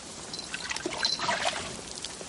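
Water pours and trickles in a steady splashing stream, with dribbles and small drips scattered through it, as runoff sheets off a body being pulled out of a pond.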